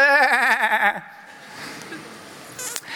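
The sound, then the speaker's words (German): A single loud, quavering sheep bleat lasts about a second, its wavering tone clear, then fades into quiet outdoor ambience with a faint rustle near the end. “Bei Schafen gibt es da nur ein Problem.”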